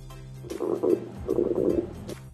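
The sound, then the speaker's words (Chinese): A hungry stomach rumbles in two low, bubbly gurgling bursts, each about half a second long, with a short pause between them and no talking. “车车的肚子响了，小趣的肚子也响了。”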